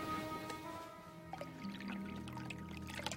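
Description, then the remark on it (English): Tea pours steadily from a pot into a cup, a continuous liquid trickle whose pitch rises as the cup fills, with a few small clinks along the way and no voices. “Just made a pot of tea.”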